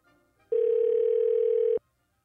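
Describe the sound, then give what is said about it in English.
A single loud telephone ring tone as a call is placed, one steady electronic buzz lasting just over a second that starts and stops abruptly, heard on its own through the phone line. “I'd be very surprised if I call him and he is listening to this program.”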